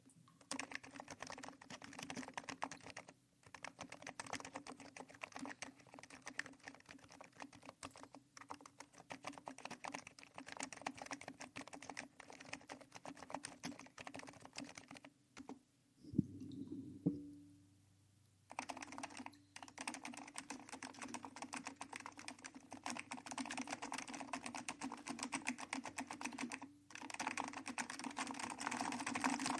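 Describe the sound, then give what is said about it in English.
Steady, rapid clacking of computer keyboard keys, fairly loud, running continuously with a brief pause and a few thumps midway before the typing resumes. “we're just gonna take a quick break from the donation segment at midnight in the sewer to give you a little bit, just a little bit, of um, some sweet ass, sweet ass uh, typing sounds.”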